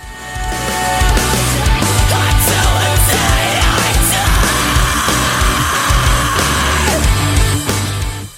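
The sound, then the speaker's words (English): Loud, dense heavy rock with rapid double-bass kick drumming pounding underneath distorted guitars, and a long screamed vocal cutting through the middle before the band holds on. “the drums go double time for the next two lines, which is awesome. And there's some really cool double bass patterns going on here.”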